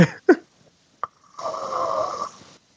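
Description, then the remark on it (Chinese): Snoring: a couple of short, abrupt snorts, then one long, rough, rattling snore that holds steady for about a second before cutting off. No talking. “到底是在哪个位置睡着的？”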